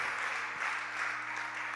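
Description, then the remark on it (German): A crowd applauds steadily, many hands clapping together in a dense, continuous wash of sound with a faint low hum underneath, no voices standing out. An audience gives applause in praise of Jesus. “Deswegen wollen wir dir einen Applaus geben.”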